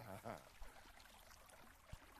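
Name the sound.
flowing river water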